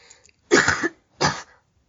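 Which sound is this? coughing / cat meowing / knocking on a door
coughing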